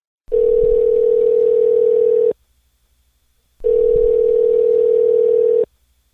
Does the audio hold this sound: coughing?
no